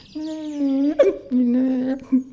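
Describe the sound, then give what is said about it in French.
A single voice imitates the flat, monotone recto tono chanting of the office heard at a Carmel convent: two long sustained sung notes on nearly one pitch, each broken off by a short, catchy hiccup-like gulp, fairly loud. “des, petits hoquets comme ça.”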